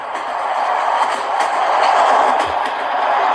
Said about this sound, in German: Ist da das Fenster offen? Nee, das ist, ähm, da habe ich mich zwischen die Abteile gestellt. Ah, da, wo die, ähm, wo diese, diese Blech, Dinger aufeinander knallen und du halt direkt unten in die Weichen